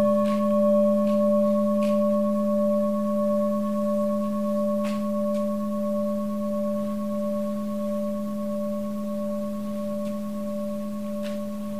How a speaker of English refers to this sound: When you hear the sound of the bell, what is the feeling tone?